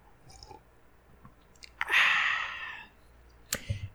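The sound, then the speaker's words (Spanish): A single airy slurp of hot chamomile tea lasting about a second, followed by a faint clink and soft mouth sounds, otherwise quiet. “Déjeme, le, doy otro trago a mi, té de, manzanilla.”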